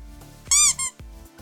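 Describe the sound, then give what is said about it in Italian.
A squeaky plastic toy dinosaur lets out two quick high-pitched squeaks, the first longer and the second shorter, loud and clear over a low background hum. “Questo è un dinosauro di plastica.”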